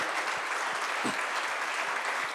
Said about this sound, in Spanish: Todos juntos damos un aplauso al Señor.